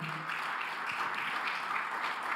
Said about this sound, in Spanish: Vamos, denle otro aplauso fuerte.